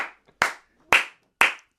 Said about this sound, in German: Ey, mach das gleich nochmal. Er hat mich gerade verrückt gemacht, weil er ganz laut geklatscht hat. Klatsch mal.